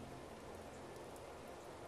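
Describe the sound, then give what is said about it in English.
Steady rain patters on needles and leaves overhead in a dense, even hiss of countless tiny drops, soft and continuous with no voices. “He listened to the rain pitter patter, pitter patter, pitter patter, pitter patter against the needles and leaves overhead on their journey to the ground below.”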